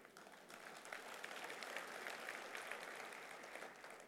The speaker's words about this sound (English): Give the Lord a hand.